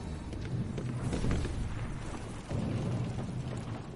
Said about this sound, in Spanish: La Marina responde a la agresión con cañonazos y mueren varios centenares de personas.